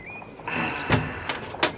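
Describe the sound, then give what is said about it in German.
An old chest, its lock just opened with a key, has its lid creak open with a strained, squealing whine, broken by a few soft knocks and clunks as it moves. Fairly quiet, with no talking. “Puh, die Kiste quietscht, als ob ein Schlossgespenst den Deckel festhält.”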